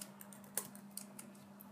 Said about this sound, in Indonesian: by the way ini dari tadi gue kayak ngetik iya gue ngetik karena gue nyari bukunya